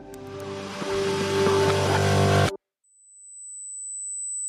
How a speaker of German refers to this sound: Ah, das ist echt ein fieser Ton. Ja, ein ziemlich fieses Piepen sogar. Das sind fast 8000 Hertz, weil dieser Ton so alleine steht, deshalb nervt er so.